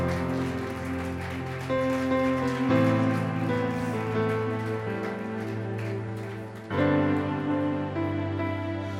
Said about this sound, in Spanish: Dale un fuerte aplauso al Espíritu Santo.